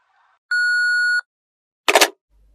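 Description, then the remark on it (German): A single steady electronic voicemail beep from a phone's answering machine mailbox, clear, holds for under a second, followed after a short pause by a brief noisy clatter. “Nach dem Signalton können Sie mir gerne eine Nachricht hinterlassen.”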